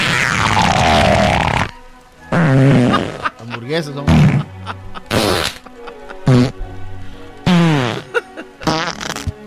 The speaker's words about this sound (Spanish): el primer show que tiene un minuto de pedos para ustedes, señores.